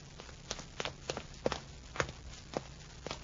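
Footsteps climbing the stairs of a tower instead of using the elevator, a steady series of about ten sharp, hard thuds at a brisk walking pace, fairly quiet, with no voices.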